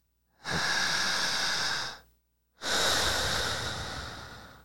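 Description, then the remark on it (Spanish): Two slow, long, very deep breaths into the mic: a steady airy inhale of about a second and a half, a brief pause, then a longer exhale that slowly fades. No talking. “cómo debo yo de respirar. Tiene que hacerse lenta, larga mm. y súper profunda.”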